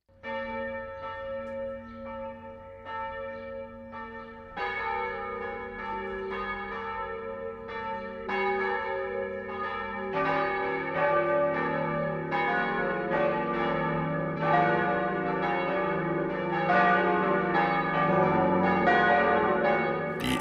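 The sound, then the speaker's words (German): Church bells of the Protestant town church in Kitzingen, Lower Franconia, on the bank of the Main, ring out for the 12 o'clock midday chime, one bell starting alone before more join in, building into a dense, overlapping peal with rich ringing overtones, steady and fairly loud throughout. “Das Mittagsläuten kommt heute aus Kitzingen.”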